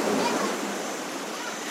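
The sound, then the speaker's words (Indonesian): A steady, broad wash of fairly big ocean waves rushing continuously at dusk on the beach closest to Mataram city centre, fairly loud, with no distinct breaks between waves in this short stretch. “saat ini gue sedang di waktu senja dengan ombak yang lumayan gede karena gue sekarang ada di daerah pantai di mana pantai ini paling dekat dari pusat kota Mataram”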